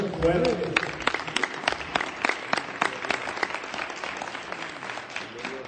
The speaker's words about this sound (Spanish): ¿Cuántos aplauden al Señor?